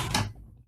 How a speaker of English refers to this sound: well, that was a sorry for that noise. If, um, that was disturbing. That was the mouse hitting my drink glass.